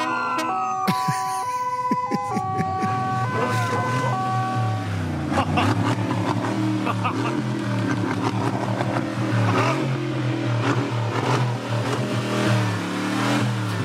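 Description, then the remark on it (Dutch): A tuned AMG car engine, a 422 hp model tuned to 800 hp and fitted with many horns and lights, revs loudly, its deep roar surging up and down repeatedly, after an opening few seconds of stepped, musical horn tones. “Dus zo'n ding heeft maar 422 pk. Maar er kunnen er veel meer uit. Dus hij gaat meteen naar 800 pk.”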